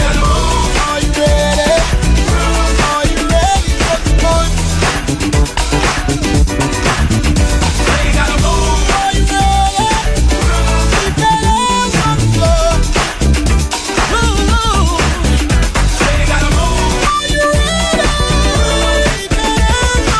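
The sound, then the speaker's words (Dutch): A funk track plays loud and steady, its groove driven by bass and drums, with a talk box vocal sung through the device's tube that makes the singing sound robotic and synthesized. “inclusief de voicebox box eh, of de, dat slangetje.”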